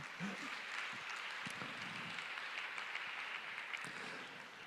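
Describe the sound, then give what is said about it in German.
A crowd claps steadily in applause given to God, a dense wash of many hands at a constant level for several seconds, with a faint voice or two underneath. “Ja, lass uns das mal, lass uns Gott mal einen Applaus geben für das, was er in Paulus Leben getan hat.”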